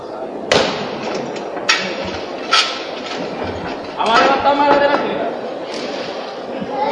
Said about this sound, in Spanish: detalles eh, de madera tallada en pan de oro que embellecen este coqueto paso del Santo Sepulcro, se retiran para poder eh, salvar mejor las estrechas dimensiones de la puerta de San Juan y vuelve a escucharse el llamador.